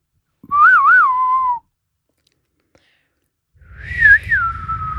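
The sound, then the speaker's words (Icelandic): Someone whistles a short melodic phrase from the Ninth Symphony, with a wavering, trilling start and a steady held note, pauses for about two seconds, then whistles another tuneful phrase over a low rumbling background. “Já, er það ekki svona eh, nýjunda symfónían í flautinu?”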